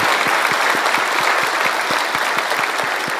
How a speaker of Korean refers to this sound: 우리 귀한 찬양을 통하여서 영광 받으신 하나님 앞에 영광의 박수 올려드립니다.